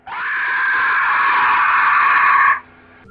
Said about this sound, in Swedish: Och sedan med ett högt skrik så sveper en robotisk pterodaktyl ner.